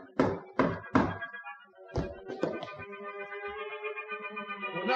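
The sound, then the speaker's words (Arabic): Three loud, evenly spaced knocks on the front door, a short pause, then a few more quick knocks, followed by a lingering ringing, echo-like tone that fills the rest of the moment. “هناك شخص عند الباب الأمامي يا سيدي أه، لا تفتح هذه النافذة ولكني بدون هذا لن أتمكن من رؤية الطارق”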